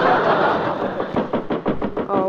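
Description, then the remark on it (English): A quick series of about half a dozen sharp knocks on a kitchen door, evenly spaced, following a second of steady background hiss. “There's someone at the kitchen door.”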